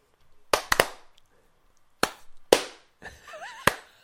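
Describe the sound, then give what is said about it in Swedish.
About six sharp hand claps land at uneven intervals, a quick cluster of three, then scattered single claps, as two people try and fail to clap in time after a count of one, two, three. A brief wavering vocal sound comes near the end. “ska, vi försöka klappa i takten?”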